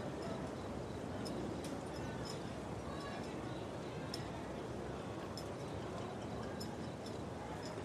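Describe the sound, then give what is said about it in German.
Soft, indistinct whispering voices of the last passers-by drift over a large square in the dark beneath a steady ambient hiss, while scattered single footsteps tap irregularly through small alleys, everything quiet. “Leise Stimmen schwirren hier noch durch die Gegend. Es ist das Geflüster der letzten Passanten, die noch umherwandeln.”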